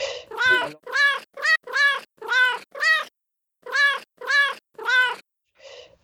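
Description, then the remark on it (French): A pet cat meows repeatedly, about nine short, clear calls in a quick, fairly regular series with a brief pause midway, fairly loud, ending with a softer, fainter meow. No one speaks. “Et pour preuve, j'ai même réussi à jouer les, les miaulements de mon chat au piano.”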